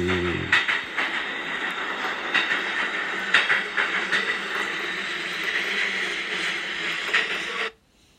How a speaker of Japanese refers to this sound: はい、電車は間もなく到着いたします。皆様、お手持ちのお荷物のご準備をお願いいたします。